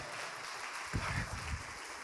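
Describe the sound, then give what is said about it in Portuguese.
A crowd gives a round of applause for Jesus, clapping steadily throughout in a dense, even wash, with a brief swell of voices or cheering in the middle. “Dá uma salva de palmas para Jesus.”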